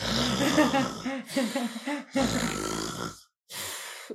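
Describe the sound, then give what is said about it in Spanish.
A person imitates loud snoring with their voice: four rough, rasping snore-like bursts in a row, with a brief pause before the last one. “Y mi padre empezó a roncar así.”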